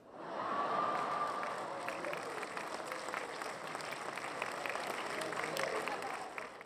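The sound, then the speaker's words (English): Steady applause from a crowd, dense and sustained for several seconds at an even level, with a faint cheer or whistle rising briefly near the start. “You get an applause.”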